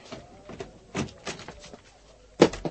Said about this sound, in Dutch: Nou, dan maar eruit. En de deur.